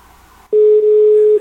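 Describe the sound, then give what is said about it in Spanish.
A steady, single-pitched phone tone sounds loudly for about a second after a brief stretch of quiet background, with a tiny dip midway, as a phone call goes to voicemail. “Buzón de voz.”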